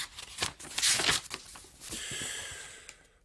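Pages of a novel rustle and flip as someone looks for page 151, a few quick papery swishes followed by a longer sliding rustle as the sheets settle. No one speaks.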